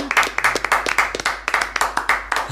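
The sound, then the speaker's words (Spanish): An audience with cold hands on a chilly day claps in a steady patter of quick, crisp hand claps, moderately loud, with no voices over it. “Tenemos las manos frías para aplaudir hoy.”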